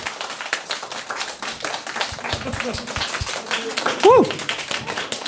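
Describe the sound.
An audience claps steadily in a dense, continuous patter for several seconds to welcome guests, with a short rising whoop of a cheer near the end and some voices mixed underneath.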